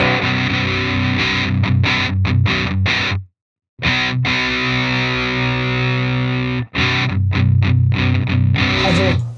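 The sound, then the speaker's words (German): Heavily distorted electric guitar through a Trashmaster high-gain distortion pedal, with a thick, saturated tone, playing loud chugging chords and short stabs with brief gaps between phrases. No one speaks. “Nimm mal den Konturregler bei dem Trashmaster.”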